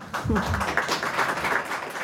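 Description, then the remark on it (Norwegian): Steady applause from an audience greeting the Norwegian Authors' Union (Forfatterforeningen) reckoning with its post-war honour court: many hands clapping in a dense, even wash that holds at a fairly loud level for the whole two seconds, with a brief murmur early on. “Denne applausen møtte Forfatterforeningens oppgjør med sin selvoppnevnte æresrett, som etter krigen anklaget medlemmer for å ha støttet eller jobbet til fordel for den tyske okkupasjonsmakten.”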